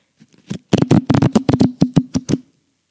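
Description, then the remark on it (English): A deck of question cards being shuffled, a rapid series of crisp riffling snaps lasting a couple of seconds, loud and clear with no talking. “I'm going to shuffle through them.”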